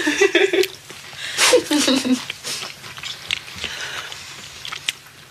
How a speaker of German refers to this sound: Konsistenz, sehr crunchy. Ja, war auch. Vielleicht auch ein kleines ASMR. Das habe ich auch gerade gedacht. Ich versuche nicht zu sehr zu schmatzen.